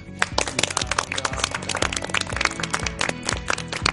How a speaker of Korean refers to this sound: 또 작품을 남기면서 오늘 정말 의미 있는 강연 남겨주신 네 분의 교수님께 다시 한 번 감사의 박수를 드리도록 하겠습니다.